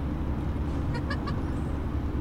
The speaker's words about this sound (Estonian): kas ta võtab midagi üles ka või on automürinat või?